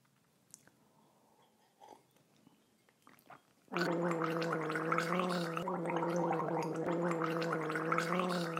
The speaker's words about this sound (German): Der beliebteste Trick, dieses R zu üben, ist mit einem Schluck Wasser zu gurgeln.